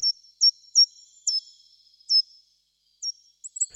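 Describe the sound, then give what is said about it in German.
High, thin call notes from a small songbird that, like the nuthatch, climbs tree trunks in hops and searches bark crevices of deciduous trees for food, repeated about six or seven times at irregular intervals, clear with no talking. “wo er natürlich auch Lautäußerungen von sich gibt, wie zum Beispiel diese hier”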